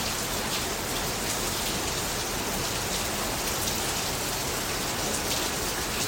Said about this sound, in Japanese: すごい雨これ雨の音がもう入り込んじゃってんじゃないかな危険だマジで